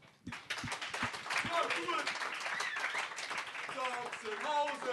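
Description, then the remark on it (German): An audience at a VMP live recording in Frankfurt am Main bursts into steady, dense clapping that holds for several seconds, with whoops and cheering voices rising over the applause. “Bitte am Anfang mal einen Applaus für euch.”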